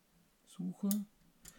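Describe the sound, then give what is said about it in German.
A Kiev Big Six medium format camera's waist-level finder flipping open: a quick sequence of soft mechanical clacks and a brighter snap, followed by a faint final click in quiet surroundings. “Also diesen klassischen Kasten habt ihr gerade gehört, der dann so aufklappt. Das war das Geräusch von der Big Six.”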